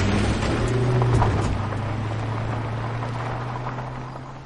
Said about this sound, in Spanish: un coche cruza la puerta de entrada a los jardines de una lujosa mansión.